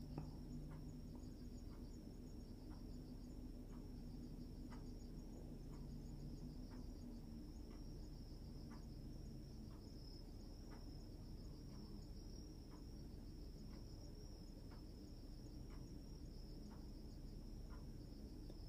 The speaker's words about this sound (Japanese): まあ僕は今黙ったっていうのもあるんですけど、あの音入ってるかわかんないですけどもう外で今虫たちが。泣いてる声が今すごく聞こえてきたんですけど